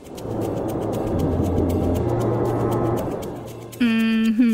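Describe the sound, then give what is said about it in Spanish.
Steady rushing air blows continuously for several seconds with a low hum underneath, then gives way to a bright, sustained whistling tone near the end. “No creo, eso es aire, no agua.”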